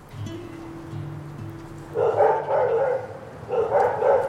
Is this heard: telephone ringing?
no